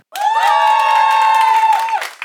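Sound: audience cheering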